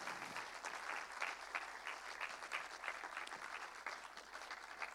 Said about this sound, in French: Je crois qu'on peut l'applaudir parce que c'est vraiment euh, formidable.